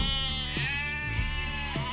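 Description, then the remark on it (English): A sheep bleats in one long, wavering, nasal cry that fills the whole two seconds, fairly loud, with no talking over it. “A man had 100 sheep, but one could not be found.”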